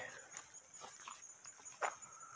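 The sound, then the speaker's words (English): A cat gives a single short, soft meow near the end, with faint, brief chirpy sounds just before it against a quiet, hissy background and no talking. “Hi, kitty. What are you doing, huh? Yeah, I hear you.”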